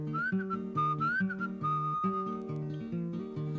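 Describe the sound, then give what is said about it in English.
A whistler imitates a bird call with a high, sustained tone and short upward slides. Steady instrumental chords play underneath throughout. “and the dog went ruff, ruff, and the cat went meow, and the bird went.”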